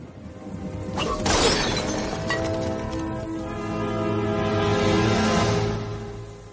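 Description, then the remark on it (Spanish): A late 14th-century Ming dynasty vase shatters in the castle scene of an Indiana Jones film where Indiana and his father reunite: a sharp, loud crash about a second in, followed by scattered tinkling fragments, all over a steady bed of sustained background music. “Sí, otra pequeña curiosidad es cuando se reencuentran Indiana y su padre, cuando lo rescatan en el castillo entrando por la ventana y tienen esa escena del jarrón.”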